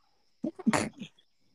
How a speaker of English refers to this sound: I think that was a sneeze. Yeah, that, I know it might have been. I thought it was, too, a, but I mean, I, first I thought it might have been a chuckle, but I'm, I'm pretty sure it was a sneeze. no, no, yeah, it was a sneeze.